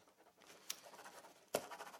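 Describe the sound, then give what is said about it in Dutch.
Soft scratching of a pen writing a note on paper, with a couple of sharper strokes or taps, quiet, with no voices. “ik heb het genoteerd”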